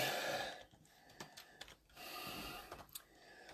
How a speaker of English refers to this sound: Pardon my heavy breathing. I only got one carotid artery and I'm at a million or at a, uh, a, uh, a mile high.